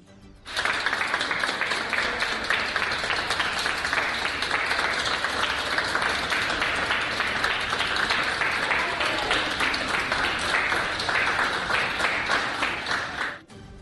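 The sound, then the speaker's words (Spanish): Patients, doctors and nurses applaud steadily and loudly for about thirteen seconds at a hospital in Ibagué, Colombia, as a young woman recovered from COVID-19 leaves, a dense, continuous patter of many hands clapping, with some voices mixed in before it stops abruptly. “Escuchamos el audio de los aplausos anoche, muy tarde, en el hospital Federico Lleras Acosta de Ibagué.”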